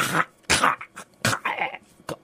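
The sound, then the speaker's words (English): A person vocally imitates an old dog gagging and coughing on a pantry floor after going for spilled jelly among broken glass: a series of harsh, raspy hacking bursts in an uneven rhythm, fairly loud, with no words spoken. “gagging, oh. coughing on the floor.”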